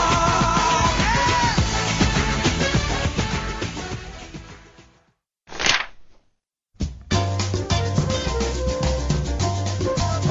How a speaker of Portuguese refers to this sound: Olha aí, ó, da torcida. Fica ligado que a letra desse samba é o maior barato.